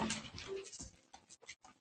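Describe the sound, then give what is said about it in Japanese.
A dog makes soft whimpering and snuffling noises, a faint whine followed by several short breathy bursts, with no one talking. “犬が現れました。”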